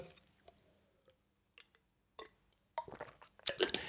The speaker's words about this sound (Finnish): Okei, sitten mennään kolmanteen asiaan, mutta mä otan vähän tuosta vettä.